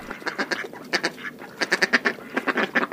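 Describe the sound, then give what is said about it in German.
A mallard duck quacks repeatedly in quick, rhythmic bursts, loud, with short pauses between runs of harsh nasal calls and no talking. “Eigentlich kann man so eine Stockente beneiden.”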